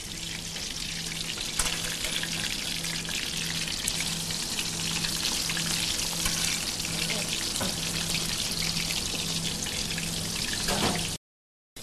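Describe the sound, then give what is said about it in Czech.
A breaded cordon bleu schnitzel sizzles and crackles in a hot pan as it turns golden, a dense, steady frying hiss for about eleven seconds over a faint low hum, then cutting off abruptly. “Tak my sledujeme zlátnoucí řízeček, Cordon Bleu, pánvy a ochutnávat budeme už za malou chvíli.”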